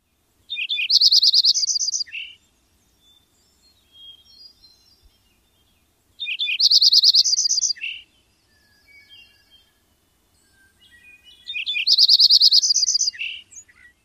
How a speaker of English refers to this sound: The Lincoln Sparrow is musical series of trills in a rising and falling pattern. It starts low and soft, rises in pitch and volume, and then descends back down.